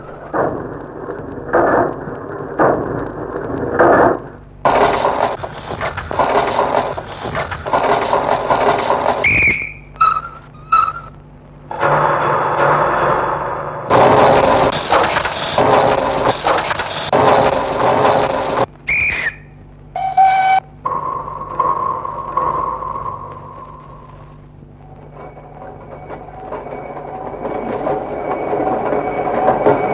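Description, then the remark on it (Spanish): A fragment of Pierre Schaeffer's musique concrète piece built from train sounds: rumbling rail noise and clattering wheels cut into abrupt blocks, with short whistle tones and pitched squeals spliced between them, ending in a sustained tone and swelling rumble. “Escuchemos este último fragmento de Estudios de un tren, que a partir de los ruidos del tren, de las vías y del mismo aire que está en este ambiente, se puede crear una composición sonora.”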